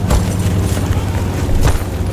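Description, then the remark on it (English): Two small explosions pop over a dense, rumbling low-end bed, one at the very start and another near the end, each a short, sharp burst, as bodies dropped from the sky land on the French coast on the night of 5 June 1944. “As they landed, there was a small explosion from each one, roughly similar to the sound you'd expect of a paratrooper setting his parachute”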